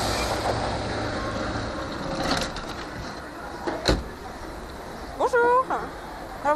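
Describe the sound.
A small road train rumbles close by with a steady engine drone, a few clanks and knocks along the way, and a brief voice rising near the end.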